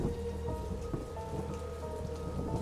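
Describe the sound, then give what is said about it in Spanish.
Steady, dense rainfall over a city hisses continuously while a deep, rolling rumble of thunder sits low underneath, the storm even throughout with no voices. “Lucio y el subinspector Castillo vuelven a atravesar la ciudad bajo la lluvia, esta vez de sur a norte.”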